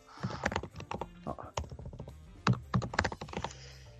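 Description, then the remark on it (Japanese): Quick, irregular tapping clicks of someone typing a full name on a smartphone, sharp and fairly loud in uneven bursts, with a faint voice murmuring underneath at moments. “ちょっと打つのがむずいな、スマホやったら。”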